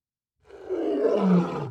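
A single deep, rumbling lion roar from a downloaded sound effect swells up loud, holding for over a second before cutting off abruptly, with no voices around it.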